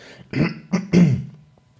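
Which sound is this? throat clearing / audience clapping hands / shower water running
throat clearing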